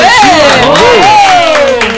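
An audience claps and cheers loudly for two seconds, with long rising and falling whoops riding over a dense, steady wash of applause.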